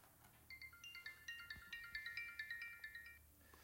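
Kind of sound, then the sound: signal or alarm, phone ringing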